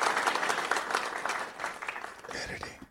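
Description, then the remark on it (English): A crowd cheers and applauds steadily for about three seconds, a dense wash of clapping and voices that stays fairly loud before cutting off abruptly at the end. “Giving y'all a big cheer.”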